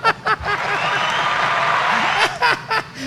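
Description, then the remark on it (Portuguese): An applause sound effect: a steady wash of applause lasting about two seconds, bracketed by short bursts of chuckling laughter at the start and the end. “Tem aplausos aqui, ó. Aplausos.”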